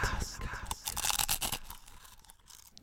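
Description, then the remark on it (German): A snack bag drops with a loud burst of crinkling plastic, crackling rustles clustered in about a second, then fading to quieter faint rustling. “Oh, mir ist direkt, da ist mir die, direkt die Tüte runtergefallen.”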